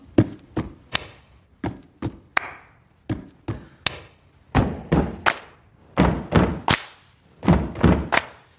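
Rhythmic stomping and clapping in a steady repeating pattern: two heavy, low stomps followed by a sharp clap, looping again and again with no voices.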